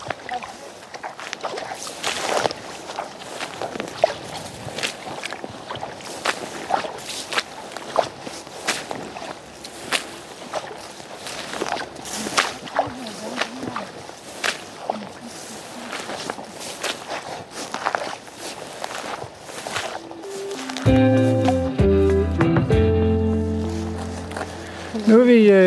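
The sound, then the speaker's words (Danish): Steady footsteps tramp through soggy heath while walking down from a burial mound, recorded with the microphone pointed down, each step a soft squelching crunch in a regular walking rhythm. Toward the end a voice begins speaking over the steps. “Træsker vi ned af gravhøjen og bevæger os øh, forhåbentlig øh, igennem noget terræn, der ikke er lige så vådt som det, vi skulle igennem, da vi skulle op på gravhøjen.”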